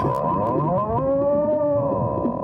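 A whale passing alongside gives a long, drawn-out moaning call, rich in harmonics, slowly rising and then sagging in pitch over about two seconds against a steady rumbling background.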